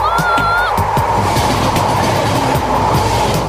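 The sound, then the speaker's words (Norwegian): A Norwegian NSB freight train, train 5795, rolls loudly along the rails, with a steady rumbling roar, rhythmic clacking of wheels over track joints, and a brief high whine or squeal near the start. “På forskjellige måter hadde guttegjengen skaffa seg interne opplysninger fra NSB om godstoget de røva fra.”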